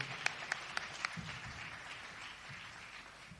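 Audience clapping, faint: a few sharp, evenly spaced claps open, then a soft, steady patter of scattered applause carries on to the end, with no voices.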